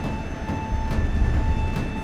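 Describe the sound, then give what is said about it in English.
Steady, loud rumble of a moving train with faint periodic clacks of wheels over rail joints and a thin mechanical whine, with no voices. “Have you ever fought on top of a moving train before?”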